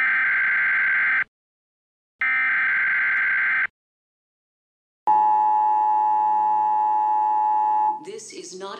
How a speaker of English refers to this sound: This is your emergency broadcast system announcing the commencement of the annual purge. When you hear that sound, you know you're listening to the Purge Pod.